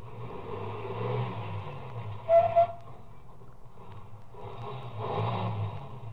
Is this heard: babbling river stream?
no